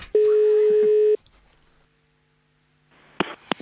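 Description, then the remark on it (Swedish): A single steady ringback tone over the phone line lasts about a second, followed by quiet, then a couple of sharp clicks as the call to the company that mounted a sign is picked up. “Det är här vi ringer.”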